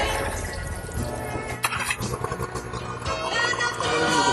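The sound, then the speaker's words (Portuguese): A car engine turns over and settles into a steady idle, its low, even rumble running continuously, with a brief sharper burst partway through; the engine is started to warm up to its ideal temperature before measuring cylinder compression. “Para o primeiro procedimento, a gente vai ligar o motor para chegar naquela temperatura ideal que deixa está o motor e a gente medir a compressão.”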